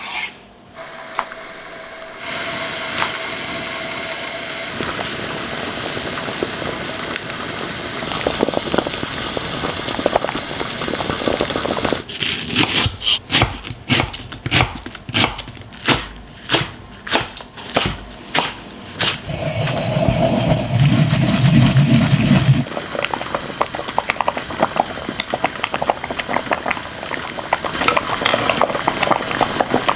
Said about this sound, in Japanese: 今朝はあっさり湯豆腐の美味しい音色それではお聴きください。